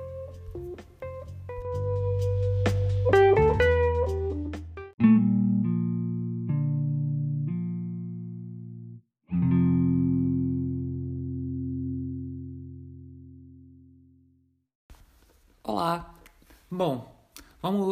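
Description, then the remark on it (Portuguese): A short electronic intro jingle with bright plucked notes and sustained synth chords that ring out and fade over about fifteen seconds, followed by someone beginning to speak. “Vinheta.”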